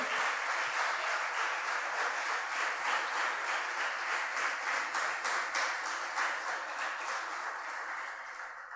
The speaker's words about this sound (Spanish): ¿Convenciste de que vas a estar de aquel lugar mirando para acá, adorando a Dios? si así lo crees, dale un aplauso al Señor. Amén. Amén.